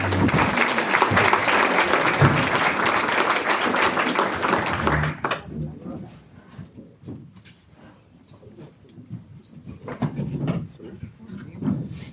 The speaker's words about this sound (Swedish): Ska vi ge dem en applåd så att de känner